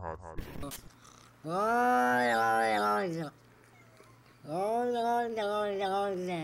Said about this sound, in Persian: ویدیویی از یک گربه سخنگو توی یوتیوب وایرال شده بود که خیلی گوگلی و کیوت هم بود از ویدیو میشد فهمید که برای یک مسابقه تلویزیونی فرستاده شده به اسم American Funniest Home Videos تو این ویدیو میبینید که یک گربه هستش که داره سعی میکنه